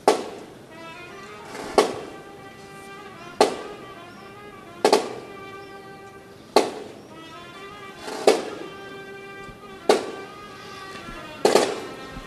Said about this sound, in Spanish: Inmediatamente va a empezar otra. Empieza con un tambor.